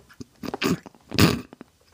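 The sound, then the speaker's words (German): A person demonstrates a stifled cough with the mouth held shut: two muffled, puffy bursts about half a second apart, moderately loud, with faint clicks around them. “wenn man husten muss und das unter, komplett unterdrücken muss und dann hustest du so”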